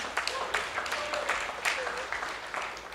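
Audience applause, a steady, dense patter of many hands clapping that fills the whole stretch at an even loudness, with a faint murmur of voices mixed in.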